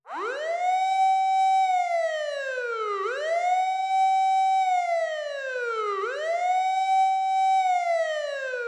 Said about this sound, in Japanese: なんと後ろから俺を追いかけてくる音パトカーのサイレンだった